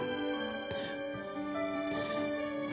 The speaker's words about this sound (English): Alright, cut out the music.